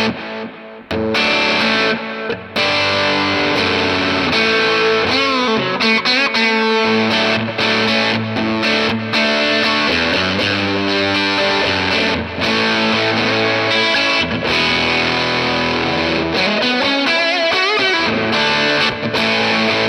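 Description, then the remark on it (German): A distorted electric guitar played through a single-coil pickup plays continuous riffs and chords for the whole stretch. It is loud and steady, with a bright, slightly glittery top end and short choppy breaks between phrases. No voices. “ich finde, obenrum kommt beim Single Coil so, so ein klein bisschen mehr Glitzern dazu.”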